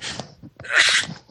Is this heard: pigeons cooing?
no